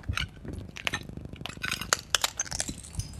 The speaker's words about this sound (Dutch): Ik kan altijd nog zeggen dat ik wat geluid aan het opnemen ben van kapot glas